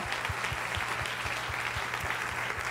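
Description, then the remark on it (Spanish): An audience applauds in a dense, steady wash of clapping that holds throughout, with a regular low thumping beat pulsing underneath and no voices. “Si ese es el aplauso para tu padre, dáselo mejor.”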